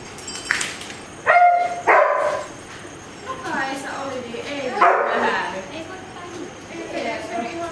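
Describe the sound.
A search dog at a search dog training exercise lets out a few sharp, loud barks, followed by scattered yips and whines, with people talking faintly in the background.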